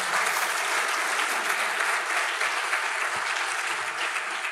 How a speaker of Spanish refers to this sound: Vamos a darle un aplauso al Señor por todo lo que nos da.